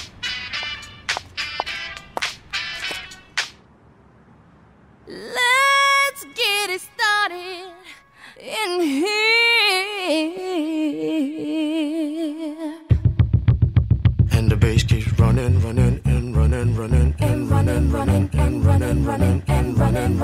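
An upbeat pop hip-hop track plays loudly: sharp percussive hits open it, then a gliding melodic section, before a dense, driving beat kicks in and carries to the end.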